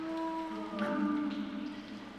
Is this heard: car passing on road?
no